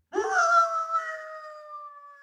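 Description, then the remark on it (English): A three-quarter Irish setter in Manchester Village, Vermont, lets out a single drawn-out whining howl, rising briefly then holding a steady mournful pitch for about two seconds, fairly loud with no other sounds. “Jacko, the three quarter Irish setter. A good dog, usually a well behaved dog”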